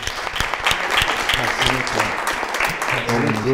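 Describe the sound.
A crowd claps steadily and loudly, a dense patter of many hands, with voices and cheers mixed in underneath throughout, as a guest is welcomed onto the live show Backa Framåt Live.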